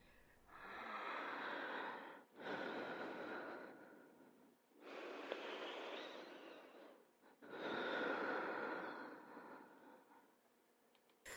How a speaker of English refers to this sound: of air that might have been water for how much effort it demanded the caller's lungs to exert in moving it. The silence surrounding each labored breath seemed to occupy physical space.